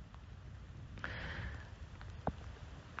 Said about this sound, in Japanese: えー、宣言した途端、さらにこう雨が強くなりましたね。